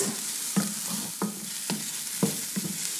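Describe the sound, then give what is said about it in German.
Onions sizzle steadily in a frying pan with a bright hiss, while a utensil stirs and scrapes them in several distinct knocks, with no one speaking. “Und ich gehe wieder zur Pfanne.”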